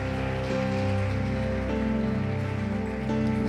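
An audience applauding the Lord in praise, in a steady, dense wash of clapping that holds for several seconds, with sustained keyboard chords ringing underneath and no one speaking.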